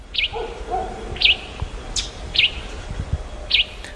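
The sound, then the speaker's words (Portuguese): A hepatic tanager (sanhaço-de-fogo) sings a short, bright note about once a second, four notes in all, clear against a faint background of other birds and low rumble. “o azulão é da família Cardinalide, que no Brasil essa família está representada por algumas outras espécies de aves são cerca aí de 18 espécies é, e entre elas estão algumas aves bem conhecidas, como por exemplo o sanhaço de fogo.”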